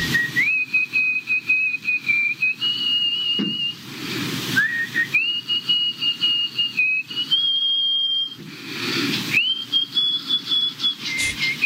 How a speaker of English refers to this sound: A woman's nose whistle broke a world record. Now, I don't even care about going into the world record. I just want you to hear this. This is not her mouth, this is her nose whistling.